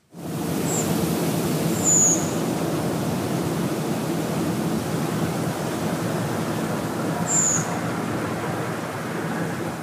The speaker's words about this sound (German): Ich weiß, das war sehr leise, aber das ist, wie es ist. Also so hat man diesen Vogel. Und zwar ist das ein drosselartiger Vogel. Das ist die Rotdrossel, eine wirklich unfassbar hübsche ähm, Drosselart. Und die brütet vor allem in Skandinavien